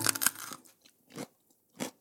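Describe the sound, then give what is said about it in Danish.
A loud, crisp bite into a crunchy raw vegetable, followed by two shorter, softer crunches of chewing spaced about half a second apart, with no voices. “De kan bides, tykkes og nydes helt og aldeles rå.”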